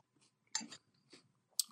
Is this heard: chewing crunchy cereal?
yes